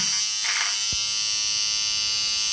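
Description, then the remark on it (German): An electric razor trimming eyebrows buzzes steadily, a bright, constant whir running the whole time with one brief low bump partway through; no one speaks. “Ähm, du musst also jetzt ertragen, dass du Rasiergeräusche hörst.”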